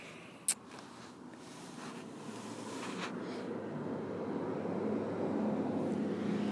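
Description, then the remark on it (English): A steady low traffic rumble swells gradually louder as many cars pass on a residential road, with a brief sharp click near the start and no voices. “Sorry, there's so many cars up my road.”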